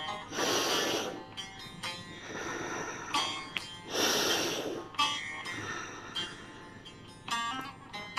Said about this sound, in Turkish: Burundan nefes alıyorum. Burundan nefes veriyorum.